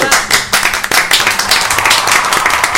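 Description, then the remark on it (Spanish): A crowd claps steadily for about three seconds, a dense, loud patter of many hands with no voices standing out. “Este, es pedir un aplauso mal pensado.”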